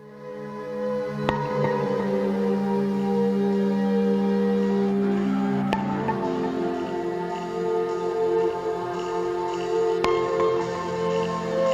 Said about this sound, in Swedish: Jag har alltid varit svag för när syntar låter så här som att de slirar som på ett kassettband som, som liksom inte riktigt går jämnt.